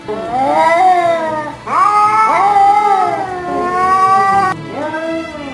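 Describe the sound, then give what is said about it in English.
A cat yowls in a series of loud, drawn-out caterwauls, about four long wavering howls that rise and bend in pitch, with no talking over them. “Do you sound more like a wet cat?”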